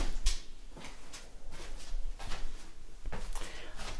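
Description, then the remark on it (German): Windows being shut: a series of short knocks and clunks from the handles and frames, over a steady low background rumble, with no one talking. “Und jetzt werde ich die Fenster schließen. Ihr hört nochmal genau, wie ich das mache.”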